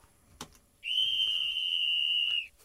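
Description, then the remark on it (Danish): A single loud, piercing whistle blast holds one steady high pitch for about a second and a half, sharp, after a brief click just before it. “Og med et hissigt fløjt, så skal vi snakke om nogen, der også har mulighed for at rykke op.”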